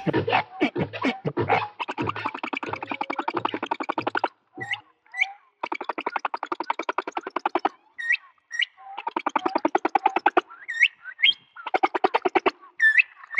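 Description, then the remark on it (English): Sped-up humpback whale song, now high and bird-like: rapid buzzy trills and pulsed phrases broken by sharp upward chirps and whistles, repeating in bursts with brief silences between. “that's the humpback whale. At its regular speed. You'll find when you speed it up, raise the pitch.”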